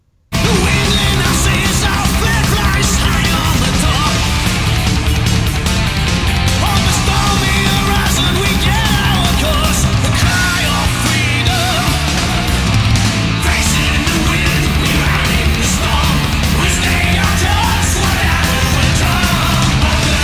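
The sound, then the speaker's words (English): A pirate-themed heavy metal song with nautical themes plays loud and continuous for the whole stretch, with dense distorted guitars, pounding drums, a shouted, belting vocal, a catchy anthemic chorus and a guitar solo. No talking is heard over it. “This one, uh, like musically, sounds more pirate themed, and I wish I could speak more to that musically, but I just I know it when I hear it.”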